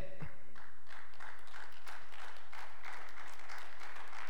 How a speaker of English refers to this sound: oh, fellas, it's the same. Don't clap too loud, fellas, because you can't.